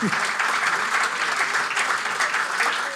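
Steady, dense applause from a crowd, a continuous crackling wash of many hands clapping at an even loudness for about three seconds, with no voices standing out.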